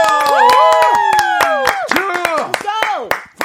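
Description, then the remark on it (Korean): An audience claps and cheers loudly to encourage the performers before a song, sharp hand claps breaking through a steady wash of excited shouts and whoops from the crowd. “자, 박수와 함성요. 박수!”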